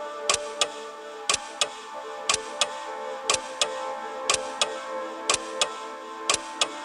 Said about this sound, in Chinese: 客厅中的时钟。在滴答滴答的行走，这时的客厅沉默的可怕。